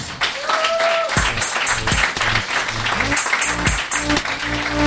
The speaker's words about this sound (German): Applaus!